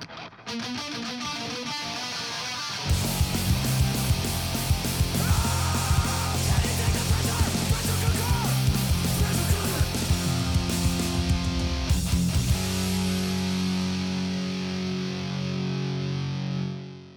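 A band's rock song plays with heavily distorted guitars, starting with a thinner intro before the full band crashes in loudly around three seconds and drives steadily on, no talking over it.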